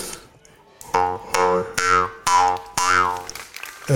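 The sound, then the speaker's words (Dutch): A jaw harp twangs in five distinct plucked strokes, each with a buzzing drone and a sliding, vowel-like wah in the overtones, played clearly with no talking. “onder andere een mondharp, dat klinkt zo.”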